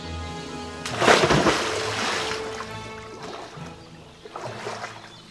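Marsh frogs plop and splash into pond water, one sharp splash followed by lingering sloshing and a second softer splash near the end, with no voices.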